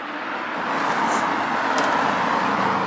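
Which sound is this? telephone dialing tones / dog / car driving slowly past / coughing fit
car driving slowly past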